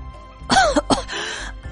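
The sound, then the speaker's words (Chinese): A shopkeeper, catching his breath, coughs repeatedly: two sharp, hoarse bursts followed by a longer raspy, breathy cough that trails off, fairly loud and with no talking. “徐掌柜喘了口气，连连咳嗽。”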